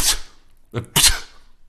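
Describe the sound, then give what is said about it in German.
A person imitates a pug's sneeze: a quick sharp burst, then a short throaty snort and a louder explosive puff, wet-sounding with no speech. “So, wenn du so, mal so einen Mops hast niesen hören, bestimmt hast du mal so einen Mops niesen hören.”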